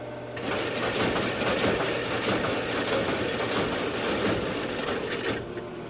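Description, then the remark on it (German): An early computer's punch card reader pulls in a stack of punch cards as the computer reads in a program: a rapid, steady mechanical clatter over a continuous whirring drone that holds at an even loudness for several seconds with no voices. “Zum ersten Mal in ihrem Leben hört Lisa das Geräusch, das der Computer macht, wenn er ein Programm einliest.”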